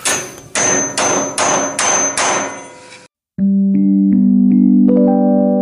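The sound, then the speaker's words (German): Five loud, evenly spaced knocks from a small hammer tapping a red button, followed after a brief pause by a bright electronic chime-like jingle of sustained tones. “magst du vielleicht mal mit dem Hämmerchen auf das rote Knöpfchen?”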